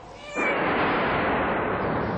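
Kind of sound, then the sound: animal, cat meowing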